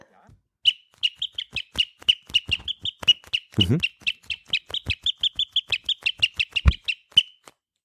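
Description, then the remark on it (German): A bird lure whistle, a small sewn leather pouch with a tiny whistle inside that is squeezed, gives a long, fast run of sharp sparrow chirps, several per second, fairly loud, with a brief murmured voice partway through. “Also ich hätte jetzt hier von den Vogellockrufpfeifen -Lock sozusagen äh, die, die, den Spatz.”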